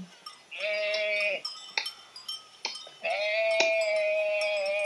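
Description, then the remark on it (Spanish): Two long, quavering bleats from grazing sheep, fairly loud, separated by a few brief knocks and clicks. No one speaks. “Comían las ovejas.”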